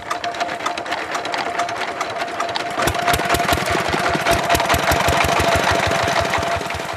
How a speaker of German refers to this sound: jedes Mal, wenn er seine Wasserpumpe anschmeißt. Die hat er sich von dem geliehenen Geld gekauft.